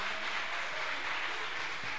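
An audience applauds together, many hands clapping in a dense, steady wash of sound that holds at an even level throughout, with no voices over it.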